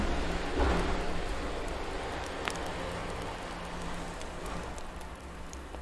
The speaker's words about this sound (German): ich hoffe, ihr habt es gehört und ich saß jetzt nicht einfach nur so da. Auto war draußen oder irgendwas Größeres.